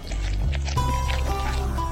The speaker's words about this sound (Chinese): 森林里静悄悄的，连鸟儿都停止了鸣叫。唯一能听见的，只有大熊舔蜂蜜时发出的声音：吸溜，吸溜，吸溜。